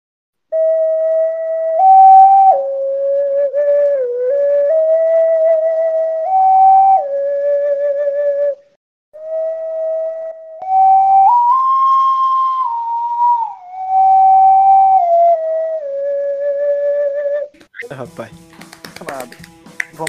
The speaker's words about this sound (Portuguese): Vai, toca a ocarina aí, que eu quero escutar.